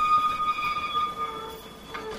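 A tram's wheels squeal on the rails as it travels through Stockholm, in sustained, high-pitched tones that waver and fade over a low rumble, followed by a brief metallic screech near the end.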